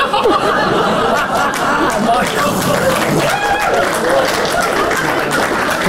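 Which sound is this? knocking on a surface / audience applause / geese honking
audience applause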